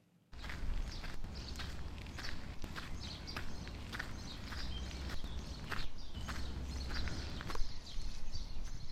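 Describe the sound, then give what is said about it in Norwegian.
Footsteps walking uphill outdoors toward Blindern student housing, next to the University of Oslo, Norway, at a steady pace of about two crisp steps per second, each a sharp scuff, over a constant low rumbling background with no talking. “Nå går jeg altså oppover til Blindern studenter hjem Jeg leter etter folk.”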